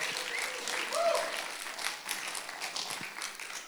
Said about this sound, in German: Lass uns mal einen Applaus geben den starken Männern hier.